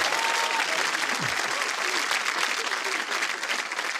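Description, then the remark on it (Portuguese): Sustained audience applause for a guest, a dense steady wash of many hands clapping at an even, fairly loud level for the whole stretch, with no voices standing out above it. “Salve palmas”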